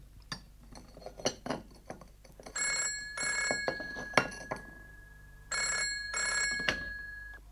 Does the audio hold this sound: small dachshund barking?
no